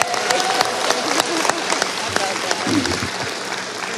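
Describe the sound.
An audience at ACB exhibits applauds steadily for several seconds to thank a team leader for her work, a dense wash of many hands clapping at once with a few sharper claps standing out and faint voices murmuring underneath.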